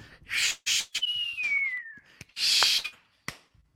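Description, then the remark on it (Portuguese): A fireworks sound effect: hissy bursts of noise, then a high whistle gliding downward, then more loud fizzing crackles and pops, with no talking. “Fogos de artifício!”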